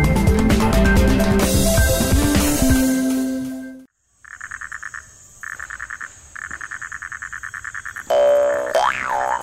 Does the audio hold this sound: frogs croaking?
yes